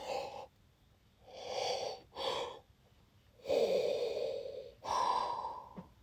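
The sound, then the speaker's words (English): A person imitates Darth Vader's heavy, mechanical respirator breathing, several loud rasping inhales and exhales in a slow, uneven rhythm, with no talking. “Oh, that's Darth Vader.”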